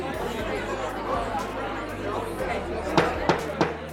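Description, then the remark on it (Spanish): A dense, noisy crowd commotion with many overlapping voices chattering loudly at once, punctuated near the end by three sharp bangs or thumps. “Bueno, lo que pasó fue que se armó ese saperoco”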